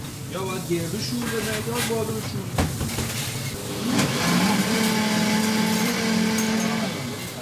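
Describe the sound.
People talk briefly, then a kitchen blender in a coffeeshop in Shiraz starts up mixing olive oil and other ingredients into pesto, its motor rising into a steady, buzzing whir that holds loudly for several seconds.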